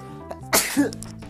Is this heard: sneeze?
yes